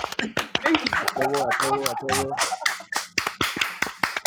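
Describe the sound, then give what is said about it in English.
Sharp, forceful hand claps land in an uneven rapid series, loud, with a voice briefly sounding a drawn-out tone in the middle. “That clap was aggressive.”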